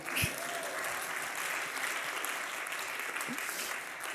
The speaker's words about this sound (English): You can give some applause to that, that's fine.